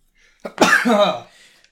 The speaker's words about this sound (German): Entschuldigung. Gesundheit